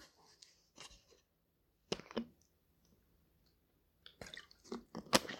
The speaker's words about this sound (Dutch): Een slokje tussendoor.